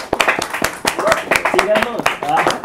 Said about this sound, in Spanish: un aplauso. Gracias.